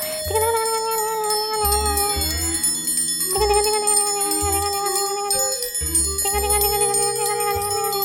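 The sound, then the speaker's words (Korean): A metal triangle is struck with a stick several times at uneven intervals, each hit ringing out with bright, shimmering high overtones that sustain and overlap between strikes. No one speaks. “삼각형 모양이 아주 정갈하고 예뻐.”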